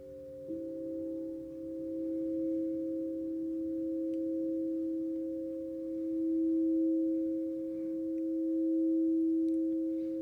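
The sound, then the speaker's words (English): Singing bowls played during a sound healing in a maloka hum in a steady, sustained drone of layered pure tones, ringing continuously for the whole stretch at a moderate level, with a faint low rumble beneath and no voices. “I think she can see our energies, and she's performing a healing on us individually using the sound bowls to manipulate the energy and free up the blockages.”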